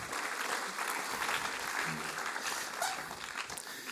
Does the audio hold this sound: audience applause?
yes